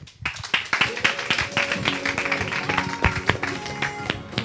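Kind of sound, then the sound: crowd, audience applause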